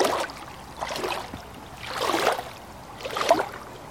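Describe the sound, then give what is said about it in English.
Water of the Ovens River swirls and splashes around the speaker in rhythmic surges, swelling and fading roughly every second or so, with no voices over the steady watery wash. The spot is on the traditional country of the Yaitmathang people. “I'm back in the Ovens River, a little further upstream.”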